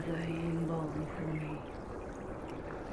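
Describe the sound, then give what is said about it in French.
Water sloshes and laps steadily and incessantly against a boat hull, heard with an ear pressed against the hull, a constant rolling wash resonating through the whole boat, with a low tonal hum sounding over it during the first half. “J'entends un clapotis incessant, un son qui roule et résonne dans tout le bateau tambour.”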